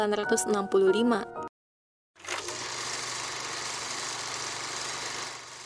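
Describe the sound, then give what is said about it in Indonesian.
A voice speaks briefly, then after a short pause a film projector whirs steadily, a constant mechanical hum and clatter that holds at an even level to the end. The projector is a DPR Museum collection piece that was used at the 1965 MPRS general session. “Suara proyektor.”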